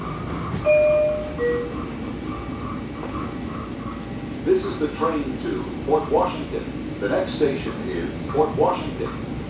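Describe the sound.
Inside a moving commuter train to Long Island, New York: a steady, low rolling rumble fills the carriage, a couple of brief high whines sound early on, and voices talk over the noise in the second half.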